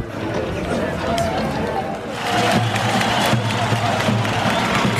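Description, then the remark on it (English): A large crowd at a floodlit, half-full football stadium in Pristina, Kosovo, after dark, roars and applauds as players come out for their warm-up before kickoff, in a dense, continuous wash of noise that swells louder about halfway through, with a murmur of many voices mixed in. “players have come out for their warm up to a, a huge round of applause.”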